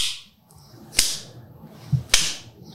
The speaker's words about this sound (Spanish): Es como cuatro cabrones haciendo eso. Cogiendo bofetones de ese cabrón. Pero él está dando duro. Él está dando, o ¿sabes? Porque tiene los cacos y tú escuchas él.